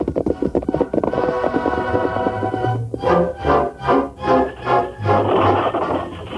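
A horse-drawn stagecoach creaks and bumps along a trail toward Pecos, with steady, rhythmic clip-clop hoofbeats becoming prominent partway through over a continuous rumbling, droning background. No one speaks.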